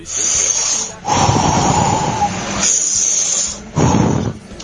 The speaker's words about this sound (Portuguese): Encheção de balão.